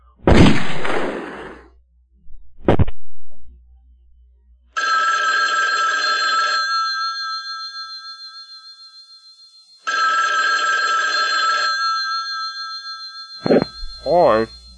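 A telephone bell rings twice, each long ring clear and loud with a few seconds of quiet between, after a couple of sharp bursts; an answering machine greeting begins at the very end.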